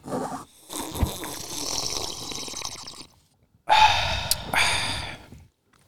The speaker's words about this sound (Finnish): Oli, se oli ryystä. Se oli, se oli hyvä pahvikahviryystä.